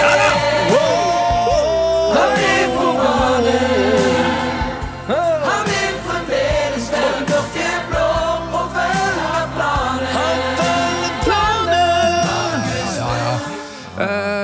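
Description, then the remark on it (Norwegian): A loud crowd of Viking football supporters sings a chant song about Markus Solbakken's contract extension, voices blending into a steady, rhythmic melody that carries on without a break, backed by a thumping low beat. “Nemlig Vikings sang om kontraktsforlengelsen til Markus Solbakken.”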